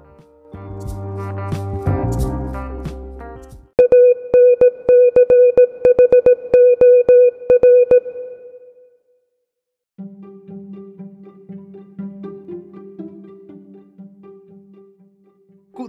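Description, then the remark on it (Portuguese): A short musical sting gives way to loud, steady electronic beeps pulsing in a quick Morse code rhythm as a spoiler alert for about four seconds, then a brief pause and a softer lower-pitched tone. No talking. “roda aí o alerta aí, roda aí o código Morse de spoilers, editor.”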